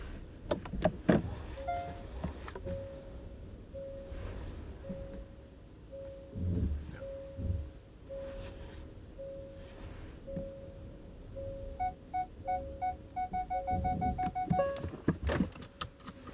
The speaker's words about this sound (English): I just realised I was talking. I was parking my car and got distracted. Sorry, that is poor podding. I had to make sure that I wasn't crashing my car.